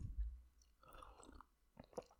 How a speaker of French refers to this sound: Alors je buvais une, petite gorgée.